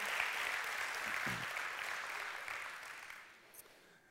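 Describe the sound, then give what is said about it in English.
A church audience applauds its senior pastor in a dense, steady burst of clapping that holds strong, then gradually thins and fades toward the end, with a faint voice briefly heard underneath. “One last time, I'm going to ask you, Clap, can we just give it up for our senior pastor?”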